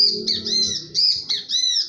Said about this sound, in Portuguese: Era um bem te vi aqui. Cantando assim, falando assim.